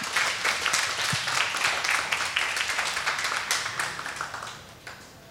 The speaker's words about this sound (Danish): Lad os også lige give en stor hånd.